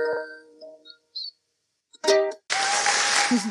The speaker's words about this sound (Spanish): Aplausos.